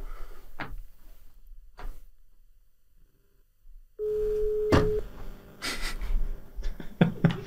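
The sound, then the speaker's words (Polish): A phone's ringback tone sounds once as a steady, moderately loud hum over a handset line while a call is placed to a neighbour, surrounded by clicks, rustling and handling noises, with no one speaking. “Poczekaj, zadzwonię do sąsiadki, może sąsiadka jest.”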